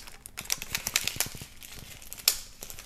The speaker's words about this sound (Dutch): Maar nu doe ik een elastiek erom, maar dan wil ik niet dat het papier waar het omheen zit beschadigd raakt. Want dat is het mooie aan deze rietjes, dat ze dan ja, apart verpakt zijn.